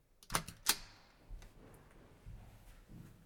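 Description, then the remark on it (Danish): Footsteps of someone running up a staircase to the fourth floor: two sharp taps followed by a few softer, duller thuds spaced unevenly. No one speaks. “Det er en, der løber, kan jeg høre.”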